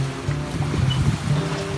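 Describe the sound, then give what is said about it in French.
A boat cruises steadily across the calm Pacific Ocean at about 4 to 8 knots depending on the wind: a low engine hum with faint water swishing and a soft rush of waves, continuous, with no voices. “Et le Pacifique est calme aujourd'hui, comme depuis notre départ.”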